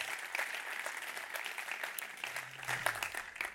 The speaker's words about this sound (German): aber ganz speziell, wenn wir unsere Locations, die das werden schauen, ICF Thun, ICF Biel, ICF Interlaken, ICF Oberwallis, einen riesen herzlichen Applaus geben. So cool, dass ihr da seid.